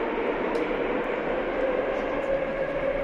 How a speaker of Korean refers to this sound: 어, 지하철 소리 때문에 안 들려. 뭐라고?